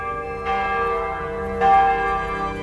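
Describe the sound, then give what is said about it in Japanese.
A church bell rings out with two clear strikes, each leaving a long, rich resonant hum that lingers and overlaps, sounding full with no voices present, heard in the Japanese-style opening theme of a historical TV drama titled Don Francisco. “まずは戦国らしい和風のオープニング曲が始まりしかし途中には聖火や教会の鐘の音が”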